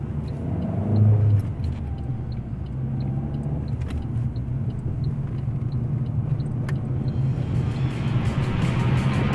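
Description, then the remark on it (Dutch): Steady low rumble of a car driving along a road, heard from inside the cabin, with continuous engine and tire noise and faint light ticking or rattling throughout; the car is being driven along the route of a train that departed from Belgium. “Ik stap vandaag in mijn auto en ik rijd het parcours af op zoek naar het volledige verhaal.”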